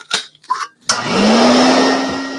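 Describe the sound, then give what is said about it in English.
After a couple of brief knocks, a vacuum cleaner motor switches on and winds up, its hum rising in pitch under a loud, steady rushing roar that continues. “I got tons of hoovers. And he keeps them all in his pawpaw's workshop.”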